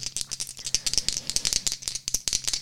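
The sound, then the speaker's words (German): Two dice rattling and clattering in quick, irregular bursts of sharp clicks, a busy run of hard taps with no one speaking. “Nee, das machen wir wie bei Gesellschaftsspielen, wenn der Würfel schräg steht.”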